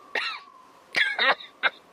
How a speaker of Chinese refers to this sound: 在这停尸的院子里，大姐突然咳嗽起来了，她有气管炎，严重的时候呢就要喷哮喘药了。